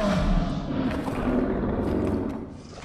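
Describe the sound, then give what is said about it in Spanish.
A deep, guttural monstrous roar from a creature rumbles continuously for a few seconds, loud, with a growling low-pitched texture that slowly fades toward the end. “La criatura te mira con ojos de odio, te lanza un rugido.”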